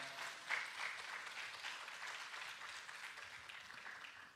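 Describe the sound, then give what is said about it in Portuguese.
A church audience applauds the Lord Jesus during a morning service in a steady, dense wash of clapping that holds at an even level for about four seconds, with no voices above it. “Pode aplaudir o Senhor Jesus nessa manhã.”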